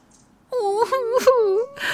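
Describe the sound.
A human voice mimics a wolf crying, a wavering, whimpering wail lasting over a second with sobbing breaks, fairly loud, followed by a short breathy sound.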